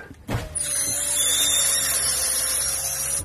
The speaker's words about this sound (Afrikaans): 'n ding wat wel geplaat is die linker agtervenster. As jy hom oopmaak, klink dit so.